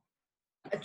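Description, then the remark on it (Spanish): A single sudden sneeze bursts out after a moment of silence, short, sharp and breathy, with no talking around it. “salud.”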